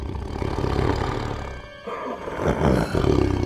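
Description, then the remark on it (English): A deep, rumbling monster growl rolls on for several seconds, loud and throaty, with a brief dip in the middle before it surges back even harsher and rougher. “But when the monster saw my face, he stopped growling and licked my mask.”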